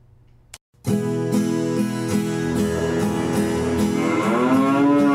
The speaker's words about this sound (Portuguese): Foi dona vaca, por gentileza, você pode me ajudar?